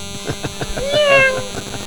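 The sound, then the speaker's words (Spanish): A voice mimics a zancudo (mosquito) whine as it passes by one's ear, with a drawn-out, nasal, wavering tone that sounds almost like a cat's meow. It rises in the middle over a steady rhythmic thumping. “No, ¿a poco no se escucha así cuando te pasan en el oído?”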